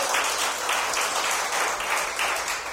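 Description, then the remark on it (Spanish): A crowd applauds the Lord steadily, a dense wash of many hands clapping at once that holds an even, fairly loud level throughout with no voices breaking through. “aplauso al Señor.”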